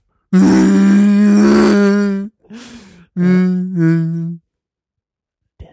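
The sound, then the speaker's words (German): A person vocally imitates the roar of Chewbacca, a Wookiee: a long, loud, throaty growling howl, then a short rough breath and a second wavering moan that rises and falls before trailing off. “Aber dieses Röhren von Chewbacca ist halt echt schwierig.”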